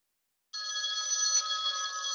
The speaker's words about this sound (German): Telefon. Ja, ich weiß. Ich versuch's ja gerade.